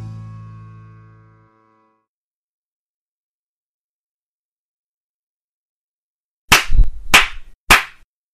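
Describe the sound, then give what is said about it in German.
Three sharp, loud hand claps, spaced evenly about half a second apart, following a fading low tone and several seconds of silence. “Ihr könnt auch nochmal klatschen.”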